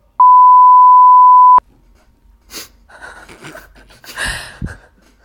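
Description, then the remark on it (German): A single steady censor bleep, a loud pure tone lasting about a second and a half, followed by quieter breathy, gasping noises and rustling. “Ich denke, es muss wirklich piepsen.”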